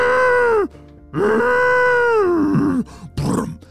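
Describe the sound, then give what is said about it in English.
A person imitates a very large, angry rhinoceros with two long, loud, groaning bellows that sag in pitch, followed by a shorter rough grunt, with no other talking. “That was the sound of a ginormous, very angry looking rhinoceros.”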